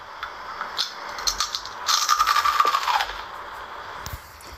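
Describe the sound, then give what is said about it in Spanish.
Crisp ASMR crunching of crunchy food: a few sharp crackles at first, then a dense burst of crackly, brittle crunches for about a second before tapering off, with no voices. “Esto que vamos a escuchar podría ser un SMR típico del ámbito gastronómico, yo creo.”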